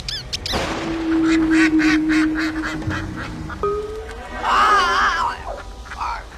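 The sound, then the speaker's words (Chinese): Loud, nasal quacks of three ducks come in a rapid series of bursts, joined by a long steady tone and later a shrill, warbling squawk, with no talking. “一阵烟雾过后，三只鸭子出现在了众人的面前。”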